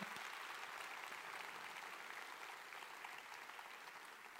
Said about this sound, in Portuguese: Aplauda ao Senhor bem forte nessa manhã. Nessa manhã.